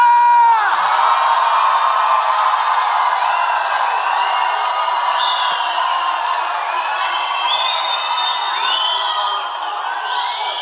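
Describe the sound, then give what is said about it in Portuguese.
A large church audience in Campinas, Brazil, shouts and whoops together a 'u, u, u' war cry in a sustained, loud roar of overlapping voices, with rising whoops and cries cutting through for about ten seconds. “Esse grito de guerra tem? Vocês fazem de vez em quando esse u, u, u, u, hein?”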